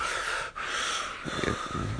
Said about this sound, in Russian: А, и если можно, пожалуйста, кто может не дышать, то, пожалуйста, потому что мне очень мешает это постоянное